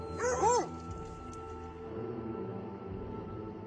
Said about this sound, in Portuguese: Conforme você vai se aproximando, você vai notando que o som dos cães vai aumentando.